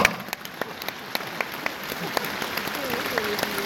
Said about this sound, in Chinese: 鼓掌